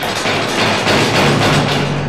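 A locked, barred metal door is yanked and rattled repeatedly, producing a loud, continuous clanking and jangling, with no talking.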